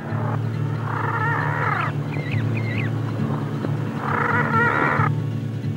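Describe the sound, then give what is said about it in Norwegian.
A dying auk's harsh, wailing death cries, played at full volume from a small cassette player through a large loudspeaker fixed inside a beak, come in two drawn-out bursts with faint squawks between, over a steady low hum. “Lyden av en døende alke.”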